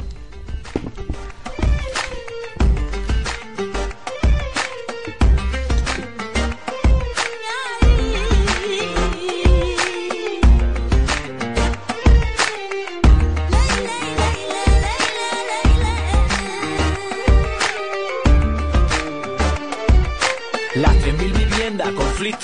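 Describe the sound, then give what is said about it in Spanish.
A song with Spanish-language vocals plays loudly and continuously, driven by a steady, punchy beat with deep bass thumps and a dense layer of melody and vocals on top for the whole stretch. “Vamos a pinchar la canción.”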